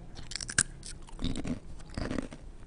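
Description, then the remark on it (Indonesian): Someone crunches a thin, purple, oil-free crispy snack right up against the microphone, with a sharp bite followed by several bursts of crackly, brittle chewing and no talking. “yang dulu nggak kedengeran Crispy dong.”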